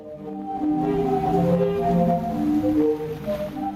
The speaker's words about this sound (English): Another unforgettable attraction is the Sadar Sea Organ, an architectural and melodious wonder that uses the motion of ocean waves to create music.